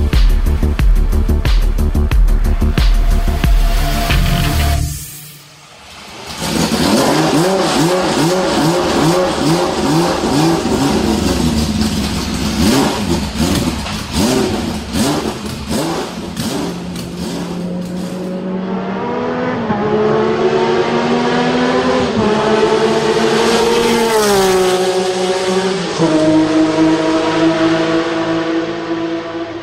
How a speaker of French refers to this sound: fabuleux son de moteur que vous venez d'entendre est celui d'une BMW M1 du championnat Pro Car, une série de courses présentées comme épreuve de soutien lors des Grands Prix de Formule 1 en 1979 et 1980